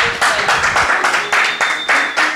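Loud applause with a quick, steady run of sharp claps repeating throughout the short burst, with no voices over it.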